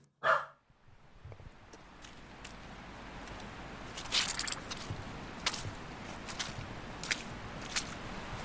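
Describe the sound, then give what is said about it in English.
A single sharp dog bark rings out at the start. It is followed by steady squelching, crunchy footsteps through wet, muddy ground on a dog walk along a river bank in North Leeds, with no voices. “He wants to go for a walk. Come on, let's go for a walk.”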